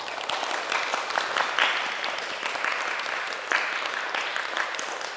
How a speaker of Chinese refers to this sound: 我们鼓掌鼓励他们啊。